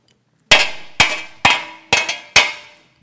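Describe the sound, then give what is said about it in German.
Five loud metallic clangs struck at a steady, even pace, each a bright, harsh crash that rings and fades before the next hit, like a resounding cymbal being beaten. No one speaks. “Äh, das andere ist das tönende Erz ja, ein tönendes Erz oder eine schallende Zimbel.”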